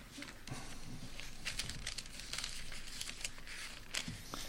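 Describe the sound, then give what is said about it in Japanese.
Thin Bible pages rustle and crinkle for several seconds, with a few sharper flicks as pages are turned one after another to the Epistle of James, at a modest level, with no talking. “ヤコブの手紙というところを一箇所開けてみたいと思いますけれども、えー、このように書かれております。”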